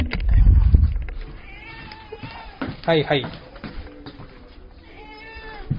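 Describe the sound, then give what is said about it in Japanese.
A cat meows a few times as it comes over when bonito flakes are taken out while goya champuru is being cooked; its rising, wavering cries stand out clearly, with a low thump at the start and a person briefly speaking in the background. “鰹節を取り出すと、猫が寄ってきます。来ました。”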